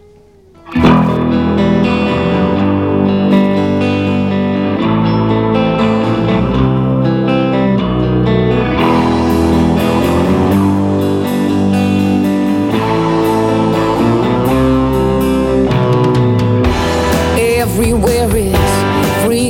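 A rock song cover kicks in after a brief moment of quiet, with loud, effects-laden distorted electric guitar and a full band playing steadily throughout.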